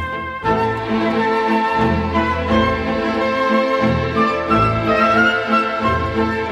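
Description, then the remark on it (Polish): Full, sweeping orchestral film music begins after a brief pause and plays loudly and steadily, with layered sustained strings and rich harmonies swelling throughout and no voices. “To, co słyszymy, to muzyka z pana Tadeusza na przykład.”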